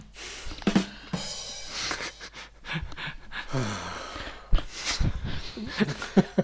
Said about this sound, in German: Das, der Schnaufen war ja fast noch geiler ist der Ton. ah, herrlich.